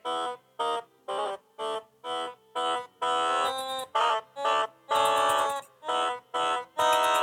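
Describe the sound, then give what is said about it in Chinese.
A bright, buzzy electronic toy keyboard, fitted with key stickers to play by, plays a simple melody of distinct tones, starting with short separate notes and moving into longer held ones, with no one talking. “它有键盘的贴纸，那你就可以依照这个键盘弹出你想要的音乐。”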